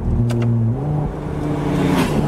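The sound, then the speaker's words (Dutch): The V6 engine of a plug-in hybrid car, still warming up, revs after the driver switches to another drive mode to shift manually, its deep steady drone stepping up in pitch before holding a sustained growl, with no one talking over it. “Want, en ik had het bewust nog even niet genoemd, we hebben ook nog die V6. En die V6, en ik ga even naar een andere rijstand. En even zelf schakelen.”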